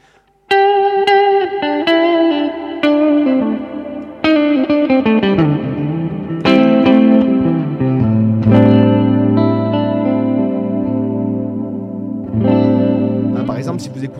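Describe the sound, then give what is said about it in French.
An electric guitar plays sustained, effects-laden notes with a wavering left-hand vibrato, with several new notes struck early on before longer held tones ring out loud. “De vraiment chercher son son en fait, son propre vibrato, sa façon de vibrer, etc.”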